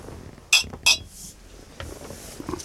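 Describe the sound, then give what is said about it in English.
Glasses of Buffalo Trace clink together in a toast, two bright, ringing taps in quick succession, fairly loud, followed by faint room murmur and small shuffling sounds. “All right, cheers.”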